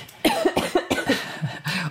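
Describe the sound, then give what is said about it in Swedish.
A fit of repeated coughing, with about six or seven harsh, rapid, loud coughs in close succession, with no talking. “där har vi elefanten i rummet, …s hosta”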